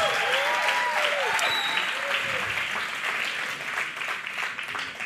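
An audience applauding and cheering loudly in praise of the King of Kings, dense sustained clapping with whoops and shouts rising over it, steady throughout with a slight fade toward the end.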